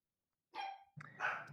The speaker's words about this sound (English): hold on it, one second my dog i don't want my dog to ruin this